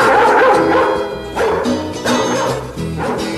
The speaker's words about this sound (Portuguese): Sai, cachorro!